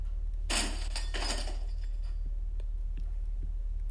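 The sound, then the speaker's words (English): A weak, thin door on a narrow landing is smashed through in a loud burst of cracking and splintering, with a second crash right after, then scattered debris ticks and clinks fading over a steady low hum. “Well, that was an astoundingly weak door.”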